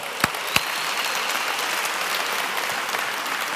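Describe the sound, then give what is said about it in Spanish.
An audience claps together for God in a dense, steady wash of applause, with a couple of sharper, louder claps standing out near the start; no one speaks over it. “Ahí que como que quisieron aplaudir. Y nos. si va a dar un aplauso a Dios, hay que darlo.”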